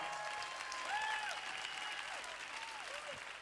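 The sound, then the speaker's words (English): A crowd claps steadily and densely throughout, a continuous wash of applause at even loudness, with a few faint voices calling out over it. “Clap your hands if you believe this.”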